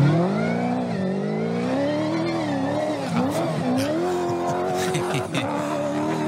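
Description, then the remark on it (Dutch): A race car powers through sand, its engine roaring loud for the whole stretch, pitch surging and dipping as it revs, with gritty skidding noise underneath. “Lekker door, de, door, de, door het zand.”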